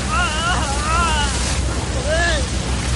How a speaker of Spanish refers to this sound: Fuera, los bomberos echan agua sobre los escombros.